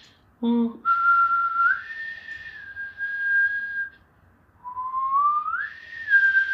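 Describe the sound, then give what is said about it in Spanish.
A person whistles an imitation of the song of Gizmo, the Mogwai: a short warbling start, then two long, sustained phrases that slide upward in pitch, fairly loud with a brief pause between. “Ya, interpreta Yo quiero interpretar, en realidad el canto es como...”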